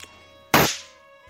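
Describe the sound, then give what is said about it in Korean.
A single sharp snap pop from a small bean-sized snap-pop toy firecracker thrown by hand, bursting suddenly out of quiet, loud, with a short fizzing decay afterward. “네, 바로 요즘 정말 가장 핫한 장난감 콩알탄이에요. 요 작은 콩알 하나 이렇게 던지고 네, 팡 하는 소리가 나면 그냥 스트레스가 다 풀리는 기분이거든요.”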